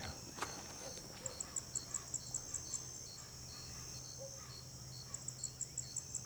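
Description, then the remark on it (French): Frogs calling at night in a steady chorus: quick, evenly spaced high chirps come in bursts over a continuous shrill drone and a faint low hum, with no one speaking. “Quoi, le truc là hein ouais, des, grenouilles.”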